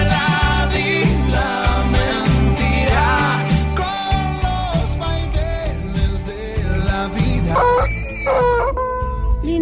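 A rooster crows near the end, its rising and falling call ringing out over loud, continuous music that fills the whole clip.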